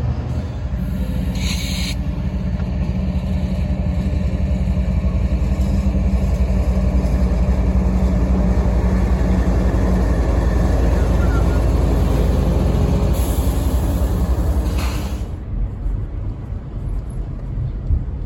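A heavy diesel locomotive engine rumbles steadily and loudly throughout, a low droning growl that holds for about fifteen seconds before easing slightly at the end, with brief hissy bursts mixed in, as the locomotive heads toward the listener at the north end of Roper Yard, a rail yard.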